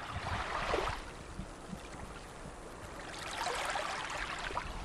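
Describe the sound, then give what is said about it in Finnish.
Small waves wash gently onto a shallow sandy shore, two soft surges of hissing, bubbling water rising and drawing back, with no voices. “Luulee kuulevansa, kun näkee, että aallot tulee rantaa, vähän on kuplia vedessä ja tulee tämmöiselle matalalle hiekkarannalle. Ja vesi tulee ylös ja vetäytyy alas”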